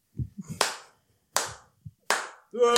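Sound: hands clapping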